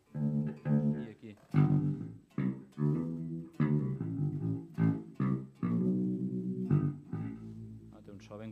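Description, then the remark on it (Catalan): A heavily processed electric guitar with a low, bass-like tone plays a run of choppy, distinct notes, thick with distortion and a warbling chorus effect, fairly loud and with no one talking over it. “Sembla això que hagis agafat un sampler d'un baix, no? l'hagis processat, pitxejat, canviat de, de tempo no?”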